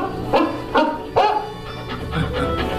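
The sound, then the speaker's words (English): A dog named Rover barks three times in quick, evenly spaced succession, fairly loud, followed by a few softer, fainter barks trailing off. No voices are present. “Gives Rover and me more time to enjoy our evening stroll together.”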